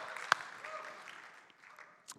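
A church audience applauds a pastor in a steady, dense patter of clapping, with one sharp louder clap early on. The applause stays fairly soft throughout and fades slightly toward the end.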